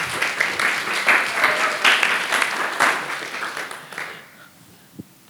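An audience breaks into applause, a dense wash of many hands clapping that holds steady for about four seconds, then fades out, with a single sharp clap near the end.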